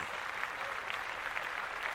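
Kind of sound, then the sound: crowd, hands clapping in studio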